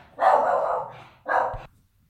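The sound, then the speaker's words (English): A dog barks twice, loud: a long, drawn-out bark followed by a shorter one after a brief pause, with no talking around it. “well, sorry for that um, that slight interruption, and this is the uh, the beauty of recording unrehearsed when you've got the dog around.”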